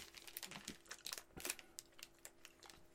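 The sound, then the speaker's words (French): Crisp crinkling of a Crispy Crunch chocolate bar wrapper, a steady run of sharp crackles and rustles over about three seconds, with no voices. “Non, c'est le, le papier. On va faire un test de papier.”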